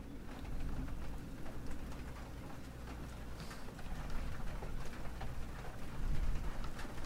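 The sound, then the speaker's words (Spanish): Steady rain falls again throughout, a dense continuous patter with scattered sharper drops tapping, staying fairly even and slightly building toward the end, with no voices. “Vuelve a llover otra vez.”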